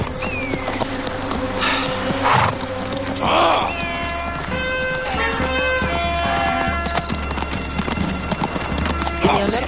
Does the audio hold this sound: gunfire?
no